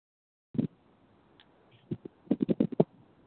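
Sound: typing on a keyboard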